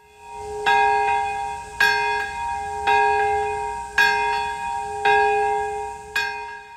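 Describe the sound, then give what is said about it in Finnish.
Memorial bells ring out in Hiroshima and Nagasaki, Japan, marking the moment of the August 1945 atomic bombings, in a slow, steady sequence of about six strikes, each with a sharp onset and a long shimmering decay overlapping the next, clear with no voices. “Hiroshimassa ja Nagasakissa kellot soivat jälleen tällä viikolla merkiten hetkeä, jolloin Yhdysvaltain pommikoneiden pudottamat atomipommit iskivät kahteen japanilaiseen kaupunkiin elokuussa 1945.”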